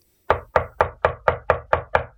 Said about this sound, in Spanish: alguien llamó a la puerta.